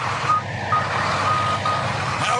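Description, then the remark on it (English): A tank backs up at a fast-food drive-thru, its reversing alarm beeping in a steady repeated pattern over a loud, low engine rumble. “Back up the tank. Back up the tank.”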